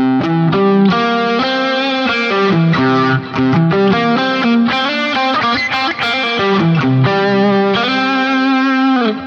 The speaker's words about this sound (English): So, what we might want to do is take this C chord that we're playing, and instead of playing that major seventh, we're going to drop that back a, a, fret and play what we call the minor seventh, which makes uh, a more bluesy sound.